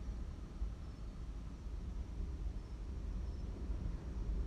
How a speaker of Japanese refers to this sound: 今日はめちゃくちゃ波が高いですねもうもうこんなにちょっと聞こえますかねザパーンっていうのね